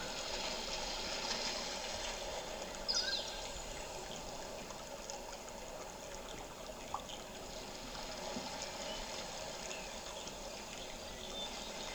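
A steady wash of seawater at the shoreline, an even, continuous rush of moving water with faint splashes and occasional brief higher-pitched clicks, heard alone without voices.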